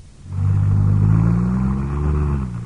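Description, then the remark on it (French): An American car, a Chevrolet, revs its engine loudly, its low droning tone climbing steadily in pitch for a couple of seconds with no voices over it. “Une voiture américaine.”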